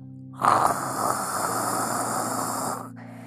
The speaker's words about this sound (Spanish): Un poco más tarde, él se escuchó un ronquido.